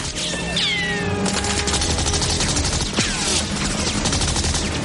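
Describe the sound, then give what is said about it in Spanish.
Rapid, continuous bursts of submachine gun fire crackle loud for several seconds, mixed with high whining, sweeping tones, as a man in a pursuing motorboat fires during a boat chase between ships; no one speaks. “Uno de los hombres les dispara con una metralleta.”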